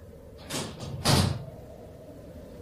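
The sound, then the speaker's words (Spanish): A door behind someone slides and bangs shut, a brief scraping rush followed by a heavier thump, then a quiet low rumble of background noise with no voices. “Escuché una puerta, una puerta detrás de mí”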